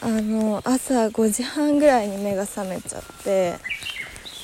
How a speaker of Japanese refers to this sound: 鳥の声が聞こえたと思うんですけどこれは BGM ではなく本当の鳥の声です